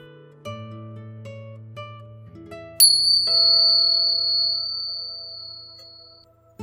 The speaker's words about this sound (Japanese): また、リラックスできる鐘の音を聞いていただいてからスタートです。